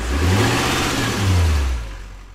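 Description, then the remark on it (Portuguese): A heavy diesel engine starts and revs up loudly, its low rumble rising and falling twice before easing off toward a quieter idle, with no voices. “como você já pôde ouvir pelo Castanhado ao ligar, ao dar play neste programa, você já sabe que se trata de mais um Pod Carro Diesel”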